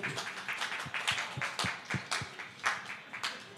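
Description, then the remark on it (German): A brief, fairly quiet round of applause in a vote for Prince of Persia: several people clapping in a dense, uneven patter of sharp claps that carries on steadily for a few seconds without any talking. “Ähm, wer ist dafür? Applaus dafür.”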